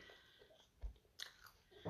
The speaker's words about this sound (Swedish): Och så tar jag med ett par skivor. Mm. Mm. Lufttorkad skinka. Sitter jag smaskar här också i podden.